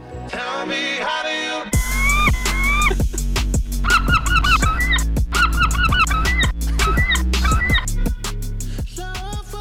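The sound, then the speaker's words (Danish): Loud, repeated seagull calls, squawking in quick bursts, layered over a steady low hum and sharp rhythmic knocks that give the cries a beat-like pattern. “at der findes måger på YouTube, der lyder sådan der”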